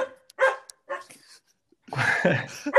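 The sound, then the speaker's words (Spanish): A dog barks in a few sharp bursts, first two or three separate woofs, then a louder rapid cluster of barks near the end, with no talking over them. “Oye, tu tortuga tiene tos. Sí, mi tortuga quiere salir a jugar pelota.”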